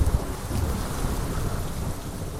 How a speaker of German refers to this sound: As soon as it starts raining, everyone needs a Mac, don't they?